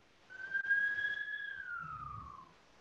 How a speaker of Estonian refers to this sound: kiirabi möödas